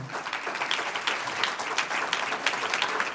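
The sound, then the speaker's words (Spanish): An audience breaks into steady applause for those who want to go to heaven, many hands clapping together in a dense, continuous patter that holds at an even level for a few seconds with no voices standing out. “Un aplauso a los que quieren ir al cielo.”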